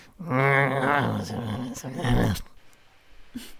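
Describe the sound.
A loud growl rumbles for about two seconds, rough and throaty with a rising, strained edge, then cuts off, leaving quiet background with a faint click.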